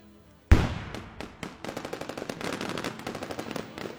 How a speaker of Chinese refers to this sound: 在距离西边日托米尔仍有七十公里的高速路上，三菱和路虎以头对头的方向停在路南侧，大家正忙着搬行李和抽油。突然，枪声响起